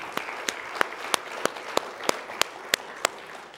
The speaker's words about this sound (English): Can we give the Lord another hand clap today, please?